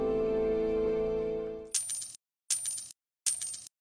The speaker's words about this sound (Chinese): 坐公交投币的时候，都会用手帕包着硬币，以免落下指纹。